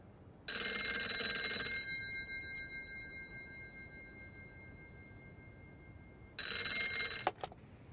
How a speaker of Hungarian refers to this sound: C személyt újra hívják telefonon. Nem válaszol. Tíz perc múlva újra cseng a telefon. Most sem válaszol.